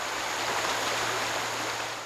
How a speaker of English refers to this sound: They do like uh, areas where there's riffles, just as we hear from this shoal right here.